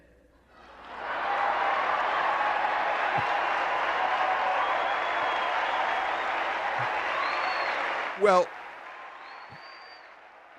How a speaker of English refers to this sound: well, well, there was cheering on the floor.